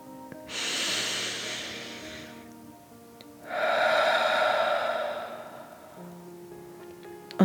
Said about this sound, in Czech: Ještě jednou se zhluboka nadechla a vydechla a snažila se sklidnit lukot svého rychlého ptačího srdíčka. Hluboký nádech a dlouhý, pomalý výdech, jako když drak chrlí oheň. Nádech a výdech.